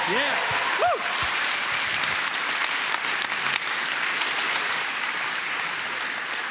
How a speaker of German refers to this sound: Kommen wir geben ihr einen herzlichen Applaus.